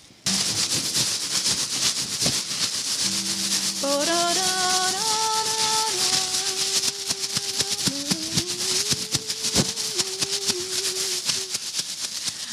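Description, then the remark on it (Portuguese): A plastic bag is rustled and crinkled continuously and fairly loudly, with a steady scratchy texture; midway, sustained pitched tones that step up and down join the crackling. “que você consegue tirar de som com um saco plástico?”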